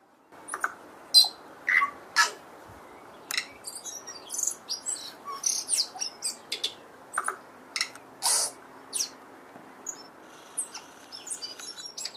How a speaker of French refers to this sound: le tui en, mm. Nouvelle-Zélande, qui a un son tellement particulier que je savais pas que c'était un oiseau au début que mm. j'entendais. Je crois mm. que c'était un vieux fax qui passait. c'est vrai que ça fait fax.